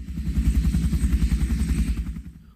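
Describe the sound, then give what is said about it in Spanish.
An Air Force helicopter flying the national flag over the Congress of the Republic: its rotor thumps in a fast, steady pulse, loud and low-pitched as it passes overhead, then begins to fade at the end. No one speaks. “También los presentes en el Congreso de la República observaron un helicóptero de la Fuerza Aérea que ondeaba la bandera nacional.”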